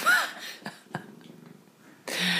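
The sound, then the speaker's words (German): A cat gives a brief, high meow right at the start, followed by soft clicks and a faint low purr, then a sudden loud burst of hissy noise cuts in. “Katze.”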